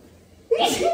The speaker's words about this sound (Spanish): Voy a estornudar.